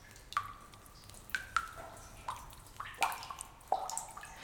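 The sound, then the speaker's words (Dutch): Water drops fall one by one in a cave, each plink bright and echoing, spaced irregularly with short ringing tails and quiet between them. “De grot laat die druppels los.”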